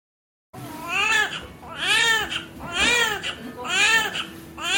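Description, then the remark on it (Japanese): A newborn baby's first cry, recorded at birth: loud, repeated wails, four or five rising-and-falling bursts in a steady rhythm, clear after a brief moment of silence. “うわこれ産声やんそうね。”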